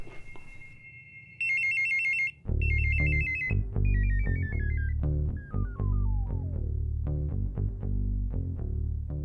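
telephone ringing

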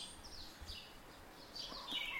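birds chirping

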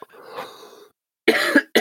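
cough

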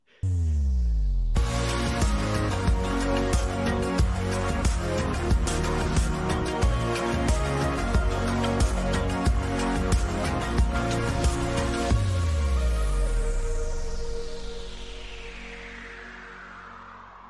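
music interlude

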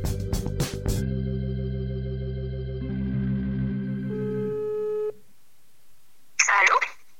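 telephone ringing tone

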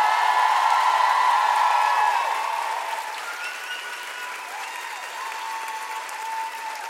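audience applause and cheering

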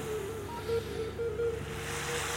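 sea waves

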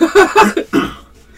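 coughing fit

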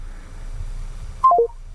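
phone call cutting off

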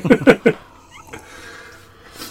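cat meowing

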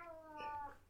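cat meowing

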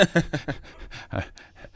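dog panting

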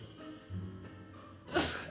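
sneeze

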